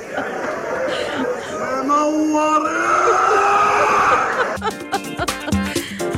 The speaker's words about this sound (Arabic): اظني هالريال في المسرحيه يا بلاعيم والمشكله المسرحيه تنعاد كل يوم كيف يصرخ هالكثر